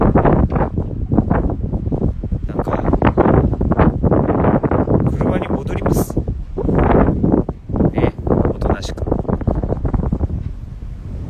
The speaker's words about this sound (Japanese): ええー、さっきより風弱いけどななんでだろうさっきより風弱いですよわりかし。